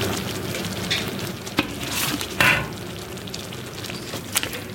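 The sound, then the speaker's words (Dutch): Steady, dense sizzling of meat hitting a hot pot, with crackling bursts and a few sharper pops and clatters, moderately loud with no talking. “Oké, okay, maak het uh, vlees erin hoor.”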